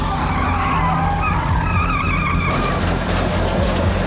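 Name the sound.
car tires skidding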